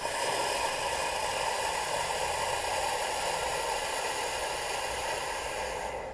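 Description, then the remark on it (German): A single long, slow, relaxed exhalation demonstrating breathing for labor, a steady, even hiss of breath that continues unbroken for about six seconds and eases off slightly at the very end. No one speaks. “Solange du sehr gelassen bist, klingt das ungefähr so, wie ich es jetzt schon ein, zwei Mal vorgemacht habe.”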